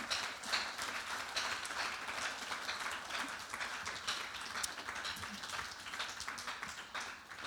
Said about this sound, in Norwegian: En god applaus til disse to hjelperne mine.